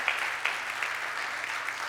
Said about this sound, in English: Can we just give them a little hand clap? for the event that they put on last night.